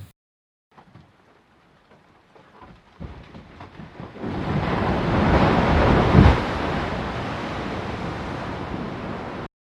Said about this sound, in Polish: No właśnie, i ten dźwięk jest dosyć spektakularny. To jest dźwięk, proszę Państwa, lodowca. Lodowca, który pęka na naszych oczach, który zagłębia się.